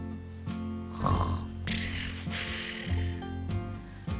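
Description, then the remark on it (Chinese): A voice imitates a little girl pretending to doze off by the sea: a few exaggerated, rumbling snores in a slow, steady rhythm, moderately loud, with soft music playing underneath and no words spoken. “小女孩蹲了下来，她想假装打瞌睡。”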